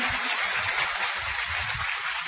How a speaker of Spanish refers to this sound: Es un campeón y yo creo que él se merece un, un aplauso más fuerte.